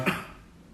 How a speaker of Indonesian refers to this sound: batuk lagi anjing. Kan bahaya banget. Tutupin gini.